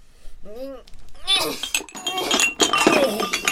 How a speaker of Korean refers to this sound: 아니 술잔을 왜 던지고 그래?